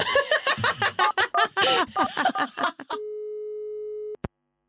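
After a few seconds of laughing voices, a steady telephone ringing tone from an outgoing phone call sounds once for about a second, fairly loud, then cuts off abruptly with a sharp click.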